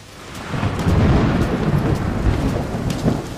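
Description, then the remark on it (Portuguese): A very strong night-time thunderstorm: a deep, sustained rumble of thunder rolls through steady rain, loud, with faint crackling drops scattered over the low roar and no voices. “Eu tive muito medo e achei que nós não íamos conseguir sair daquela tempestade com vida ou, ou sem sofrer algum tipo de acidente, porque era muito forte, muito forte mesmo.”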